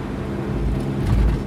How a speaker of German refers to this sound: Mir kommen mir nur welche entgegen. Und ich komme so gut durch, trotzdem, dass ich hier maximal 80 fahre. Je nach Sichtverhältnissen gerade. Die zwischendurch echt sehr schlecht sind.